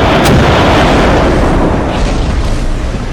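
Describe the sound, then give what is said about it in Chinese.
Air cannons firing, shot by three people at eight charging monsters: a sharp crack right at the start gives way to a loud, continuous roaring rumble of blasts that barely fades over three seconds, with no voices. “有了先前小山的教训，三人没等怪物靠近，就已经开炮了。”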